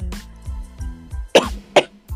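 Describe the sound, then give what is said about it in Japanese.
Two sharp, loud coughs in quick succession, with a few softer breathy throat sounds around them and no speech. “すいませんちょっと私が、敵 咳が出ちゃうんだけど。”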